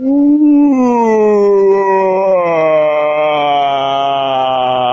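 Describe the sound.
A man's voice imitates a scream slowed down, a long, loud, sustained vocal wail that starts higher and slowly sinks to a low, droning pitch over five seconds.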